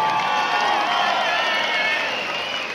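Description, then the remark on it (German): A crowd cheers and applauds steadily as a welcome for people, a dense wash of clapping and shouts that stays loud and continuous throughout, with no single voice standing out. “Kleinen Welcome für die Leute.”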